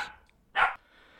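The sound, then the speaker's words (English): A puppy named Jack Jack gives one short, sharp bark in the background, loud, after a faint trailing yelp at the start, with quiet room tone around it and no talking. “and you can hear my newest pup, Jack Jack, in the background barking.”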